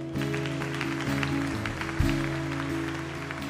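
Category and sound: crowd, audience applauding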